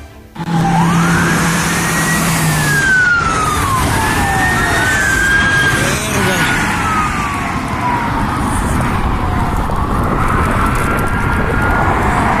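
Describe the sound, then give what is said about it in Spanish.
Several police sirens wail and sweep up and down over loud, rumbling traffic or engine noise during a police chase through the streets of Aguascalientes at 5 a.m., the rising and falling tones overlapping as vehicles race past. No one speaks. “De hecho, hasta una persona que estaba esa hora, no sé qué haciendo, pero estaba ah, en la vía pública, grabó el, el inicio de la persecución.”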